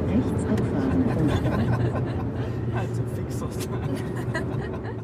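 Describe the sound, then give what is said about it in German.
A steady, low rumble of a car driving on a warm afternoon, heard from inside the hot cabin on the way to a counselling appointment: continuous engine and road noise with a constant hum that holds at an even loudness throughout. “Im Auto staut sich die Hitze. Wir sind auf dem Weg zu einem Beratungsgespräch.”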